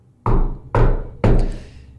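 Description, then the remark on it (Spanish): Someone knocks violently at midnight: three heavy, forceful knocks on a wooden door, evenly spaced about half a second apart, each one booming and ringing briefly before the next. “Unas noches después, los toquidos de la puerta volvieron, pero más violentos.”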